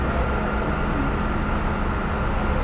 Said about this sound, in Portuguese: E tem um caminhão, já está quase na hora, pessoal.